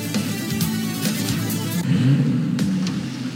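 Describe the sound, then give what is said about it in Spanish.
A car engine revs hard in a radio advertisement for Aela, its low roar climbing and surging in pitch, with a sharper burst of throttle near the end, loud with no voices. “Dale power a tu carro con Aela y tu Ghost Socio de Aela, dale power a tu carro con Aela y tu Ghost”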